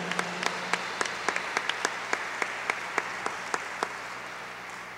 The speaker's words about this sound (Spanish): Dale un fuerte aplauso a, nuestro Rey, a nuestro Señor.